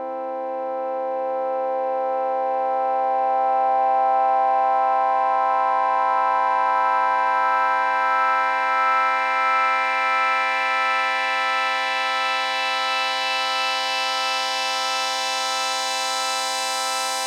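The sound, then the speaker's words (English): A steady, buzzy synthesizer note held for about seventeen seconds, the filter given a very long envelope attack, its tone slowly brightening as the filter gradually opens, growing sharper and more harmonic-rich toward the end. No voices. “So if we're if we're giving the filter a really long attack, it would sound like this.”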